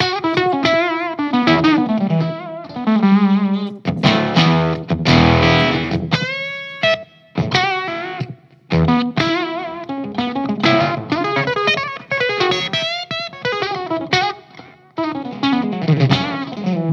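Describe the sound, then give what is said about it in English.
A distorted electric guitar played through a fuzz pedal, with the fuzz and tone turned down a little and the level turned up, strumming loud, buzzy chords and short riffs with a thick, saturated tone and brief pauses between phrases. “I bring down the fuzz and down yeah. with the tone a little bit and up with the level so it will sound more like that.”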